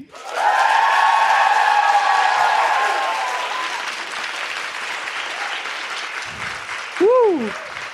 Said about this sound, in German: einen spontanen Applaus von unserem Publikum. Wow. So schön, als hätten wir es geübt.